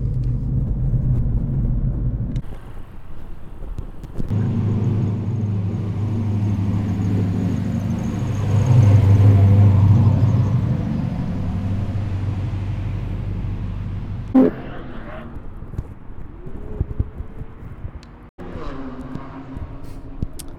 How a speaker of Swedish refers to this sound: Här har vi alla bilar uppställda. och De är ute och kör på banan just nu för fullt här.